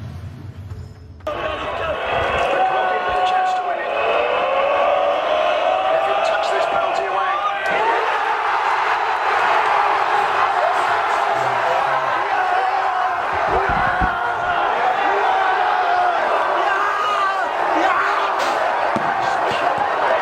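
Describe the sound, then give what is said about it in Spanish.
A huge crowd of Eintracht Frankfurt fans in the fan zone in Seville erupts into sustained, roaring cheers and screams at the final penalty that won the Europa League, after a brief quieter moment, the wall of voices staying loud and dense throughout with shouts and whoops rising above it. “Vamos a ver cómo se ha vivido ese último penalti en la fanzone en Sevilla por la afición del Eintracht.”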